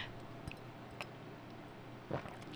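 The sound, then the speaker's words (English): Quiet sipping of water: a few faint mouth clicks, then a brief wet slurp and swallow near the end, with no talking. “Again, let me get a sip of water, please”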